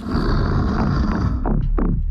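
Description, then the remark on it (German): A deep, loud roar from a mother polar bear coming toward the listeners rumbles continuously, breaking into a few harsh, huffing growls near the end. No one speaks. “Jetzt kommt die Bärenmama zu uns rüber.”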